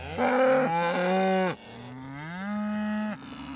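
A cow moos twice in a row, a loud bellow followed by a longer, slightly lower drawn-out moo, with no talking.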